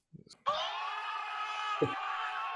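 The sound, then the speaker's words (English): A loud crowd cheering sound effect roars in abruptly after a couple of brief vocal sounds and holds steady to the end, a dense wash of many voices with a short low vocal blip partway through. “Crowd's going wild.”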